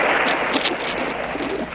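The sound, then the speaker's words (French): Loud, dense battlefield noise of whistling shells and continuous roaring artillery fire, with a couple of sharper bursts in the middle, with no voices. “Au moment même où nous on entend siffler les”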